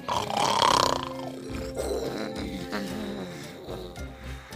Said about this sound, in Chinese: 狮子看见这一片狼藉的样子。他大吼了一声